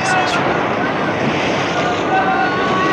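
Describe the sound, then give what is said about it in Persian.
A steady, loud roar of rough sea and wind fills the whole stretch, dense and unbroken, like storm-driven waves churning, with gusts blowing across the water as ever stronger winds toss a ship back and forth on the raging ocean. “کشتی در اقیانوس خروشان به جلو و عقب کشیده می شد و به شکاف بزرگی برداشت و در هم شد”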